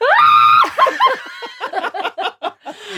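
A short, loud, high-pitched morning scream from actress Josefine Frida on the P3 Morgen radio show lasts about half a second, then breaks into choppy bursts of laughter and snickering.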